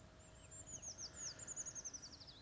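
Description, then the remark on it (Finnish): A Eurasian treecreeper sings a thin, very high-pitched song, a descending run of tinkling notes that quickens into a brief trill and ends in a small flourish, fairly faint over low background hiss. “Jos maaliskuussa tai huhtikuun alkupuolella kuulee pajulintumaista laulua, voi olla varma, että kyseessä on puukiipiä.”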